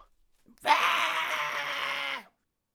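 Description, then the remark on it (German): A person imitates a frustrated, hissing scream: one loud, raspy, breathy burst held for about a second and a half, then cut off abruptly, with silence on either side. “Und als sie merken, da liegt niemand drin, hört man sie nur frustriert schreien und dann lösen sie sich wieder auf. Also es hört sich eher wie Fauchen an.”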